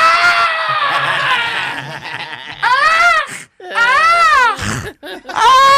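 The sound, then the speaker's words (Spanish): A voice imitates the police siren of a Jewish community's own police car: a long, loud, high-pitched wail, then several rising-and-falling whoops separated by short breaths, the tone sweeping up and down in sharp arcs. “Que es la, la sirena de ellos.”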